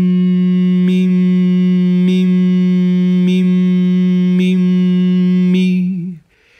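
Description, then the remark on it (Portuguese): A single voice holds one steady sung note on the syllable "mi" for about six seconds as a vocal exercise, a bright whistle-like overtone ringing above the low pitch at the same time, before it trails off and fades. “Então é como se eu tivesse a emissão de dois sons ao mesmo tempo.”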